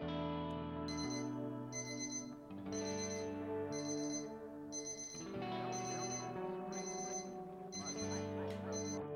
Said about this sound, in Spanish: Desperté y parecía que mi teléfono quería hablar. Tenía notificaciones por doquier.